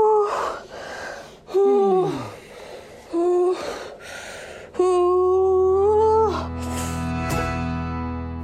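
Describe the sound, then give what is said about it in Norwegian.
A woman gasps and moans during childbirth in strained, drawn-out bursts, her voice rising and falling between sharp breaths, loud, ending in a long strained cry. “Hvordan er det for deg å høre dette om igjen?”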